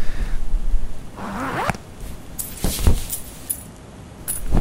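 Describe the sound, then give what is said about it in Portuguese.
Someone rummages through a backpack looking for money, with a zipper rasp, rustling fabric and a few light metallic clinks of coins scattered across several seconds. “Deixa eu ver aqui na minha mochila.”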